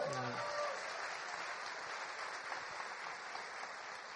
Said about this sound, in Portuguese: Aplaudam o Senhor!